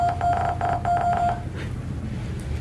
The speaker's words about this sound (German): Also ich bin mir nicht sicher, ob man das jetzt gerade im Radio gehört hat, aber das hört sich ziemlich nach unserem Jingle an.